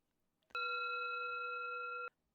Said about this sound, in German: Es klingelt wieder. Oh, diesmal ist es der Frosch Ferdinand, der zu Besuch kommt.